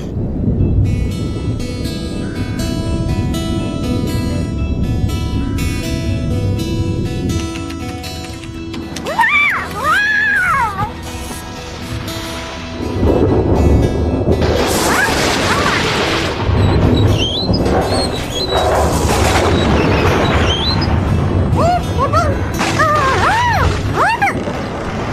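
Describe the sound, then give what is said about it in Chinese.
Loud thunder booms and rumbles as a storm arrives over a farm, with heavy crashing bursts in the second half and high, wavering vocal or animal-like calls mixed in. “我们能在暴风雨来临之前赶回谷仓吗？”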